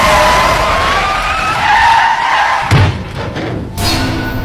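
Truck brakes slam as the driver brakes hard while driving, and tires skid with a loud, sustained screech and harsh tonal squeal for a few seconds, then a heavy thud breaks it off, followed by rattling noise.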